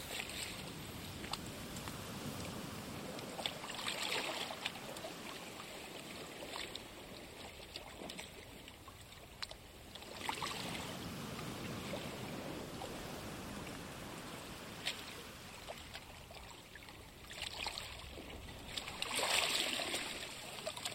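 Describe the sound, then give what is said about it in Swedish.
Gentle water laps steadily against a shore, with soft swells rising every few seconds over a continuous wash. Fairly quiet, with no voices. “Känslan av vatten tystnad som sköljer mot din kropp ger dig ro.”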